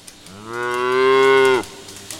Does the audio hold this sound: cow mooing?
yes